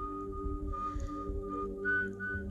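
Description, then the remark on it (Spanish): A man whistles a slow tune of long, steady notes that climb to a higher pitch near the end, over a low, rumbling background. No one speaks. “Hace mucho tiempo vivía por los llanos venezolanos un joven, hijo de familia, que se la pasaba silbando mientras caminaba.”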